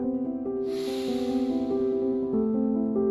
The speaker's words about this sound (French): Prends le temps d'une respiration. Inspire.